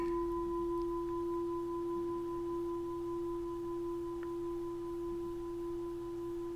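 A steady, sustained metallic tone from a singing bowl hums on without a break, two pure pitches ringing together as it resonates, fairly quiet and alone with no voices.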